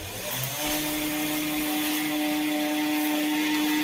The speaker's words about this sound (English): Like a trimmer? Is yeah, it's a gardening? trimmer. That's a trimmer. Yeah.